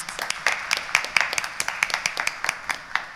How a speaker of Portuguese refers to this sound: uma salva de palmas.